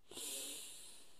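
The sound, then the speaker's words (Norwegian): A single long, airy inhale drawn in through the nose in a breathing exercise, a steady hissing rush of breath that starts abruptly and holds for over a second, with no talking. “Pust godt inn med nesa.”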